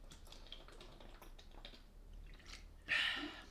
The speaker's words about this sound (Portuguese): esperem que eu vou só beber um bocadinho de água antes de entrar nisto